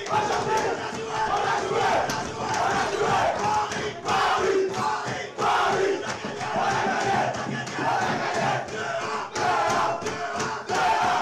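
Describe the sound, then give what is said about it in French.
A group of players shouting and cheering together in a locker room, celebrating a victory over Paris Saint-Germain, loud, with overlapping whoops and rhythmic chanting bursts that carry on without a break. “On a un son, le son des vestiaires.”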